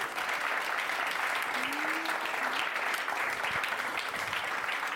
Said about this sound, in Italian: Applausometro, applausometro.